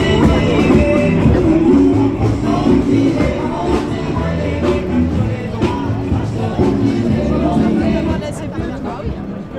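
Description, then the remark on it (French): Loud amplified music blares from a CFDT union sound truck at a street protest on 31 January, heard outdoors under a steady hubbub of crowd chatter for the whole stretch. “Maintenant, euh, camion sono de la CFDT sur le, le, 31, eh bien au 31 janvier, on a pu entendre quelque chose comme ça.”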